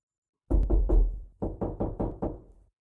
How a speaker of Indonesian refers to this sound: Belum lama merendung, bapak mengetuk pintu kamarku.